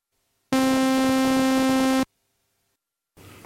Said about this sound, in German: Okay, das war Das war jetzt ein Sägezahn. Sägezahn ohne, ohne irgendwas dann. Ohne irgendwas, einfach ein reiner Sägezahn. Mhm. Und der besteht eben aus, aus ganz, ganz vielen Sinussen eigentlich.